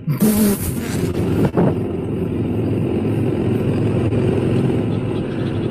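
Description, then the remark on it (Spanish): A motor engine runs loudly and continuously as its throttle is pushed to accelerate, a dense low rumble with a brief surge and dip near the start before it settles into a steady, revved-up drone. “Tenés que empujar para acelerar.”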